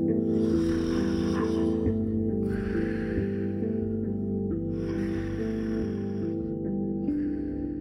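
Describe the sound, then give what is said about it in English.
Loud snoring from someone fast asleep repeats in slow, regular cycles, about three deep rasping breaths over a steady low drone, with no talking. “Huh, fast asleep.”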